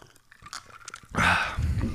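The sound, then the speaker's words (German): A quiet moment with small mouth clicks, then a loud sip of Korn schnapps, a wet, breathy slurp that fills the last second with no talking. “Aber jetzt äh, trinken wir den ersten Schluck, um irgendwie durch diese Folge durchzukommen.”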